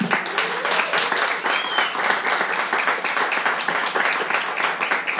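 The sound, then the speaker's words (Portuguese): A crowd applauds steadily for several seconds, dense clapping with scattered cheers and whoops rising above it, loud throughout. “muito barulho, muito respeito aí, Meteoro Podcast”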